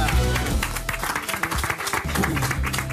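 A crowd applauds steadily for about three seconds, a dense, loud wash of clapping that holds its level throughout, with some voices murmuring underneath.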